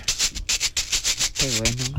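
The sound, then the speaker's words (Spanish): Marbles rattle inside a suitcase struck with a chair leg as a homemade instrument, in a quick run of gritty, hissy shakes, about five per second. Toward the end a wavering hummed voice joins over the rattling. “Que es darle con la, con la pata de una silla a la maleta con unas canicas”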